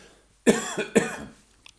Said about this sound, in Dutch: hoest, maar, hoest maar lekker uit, hoor.